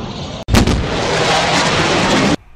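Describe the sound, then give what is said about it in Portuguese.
A sudden, sharp boom cracks open, then a loud, thick rumbling roar holds for about two seconds before cutting off abruptly, like a jet breaking the sound barrier. “Ele rompeu a barreira do som.”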